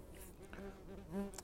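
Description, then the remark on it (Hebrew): A bee buzzes in a steady drone whose pitch wavers and rises as it moves, growing slightly louder near the end, with no one speaking. “לכי מפה, דבורה מגעילה.”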